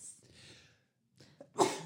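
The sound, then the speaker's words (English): A single loud sneeze bursts out after a breathy intake and short pause, sharp and explosive before quickly trailing off. “Bless you.”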